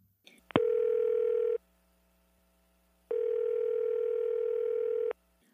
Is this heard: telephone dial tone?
yes